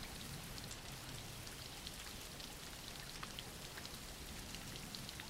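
Steady rain falls throughout, a dense, even hiss with countless small drops pattering on a surface. It holds at a constant level with no pauses, no thunder and no voices.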